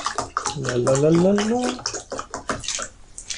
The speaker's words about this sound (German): ich schütte mir mal gerade was zu trinken raus